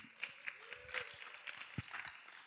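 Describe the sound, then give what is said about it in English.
Audience applause for a woman's birthday: a dense, steady patter of many hands clapping at once, crisp and bright, holding at an even moderate level with a few sharper claps standing out. “And so, would you give her a great round of applause?”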